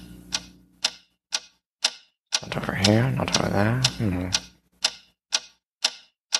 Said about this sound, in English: And let's talk about the Harry Potter puppet pals. First of all, let us refresh your memory. What is that mysterious ticking noise?